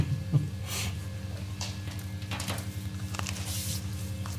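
Chewing of a hot, freshly baked pretzel after blowing on it and biting in: soft, squishy mouth sounds and breathy bursts come in an irregular rhythm over a steady low hum, with no talking.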